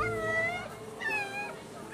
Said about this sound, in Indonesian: Oh, oh, oh ya ampun. Itu ternyata suara anak-anak kucing. Ada empat ekor anak kucing sedang mengiung-ngiung di depan tempat potong rambut.